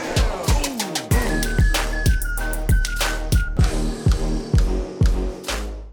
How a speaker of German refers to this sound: Und deswegen gehen wir jetzt noch, damit wir auch wirklich ein bisschen in der Zeit bleiben, zur letzten und ersten Rubrik für heute. Und ich würde sagen, Jingle ab, oder?